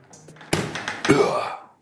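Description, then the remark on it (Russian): A soft, muffled thump as risen doughnut dough is punched down, followed by a brief, breathy rush of air escaping that fades within about a second. It is moderately loud, with no talking. “Весь воздух просто выпрыгнул.”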